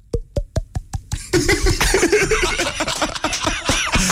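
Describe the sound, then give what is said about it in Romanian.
A quick run of about six hollow, bottle-like pops made by flicking fingers against the left or right side of the throat, evenly spaced, followed by loud laughter and overlapping voices. “câți ascultători de Morning Glory fac acum ca sticla”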